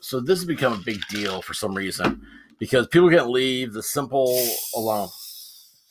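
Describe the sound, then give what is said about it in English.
A man talks steadily, then as his words trail off a can of Dr. Pepper soda is cracked open and a soft, airy fizzing hiss rises and lingers to the end. “That's the sound of Dr. Pepper.”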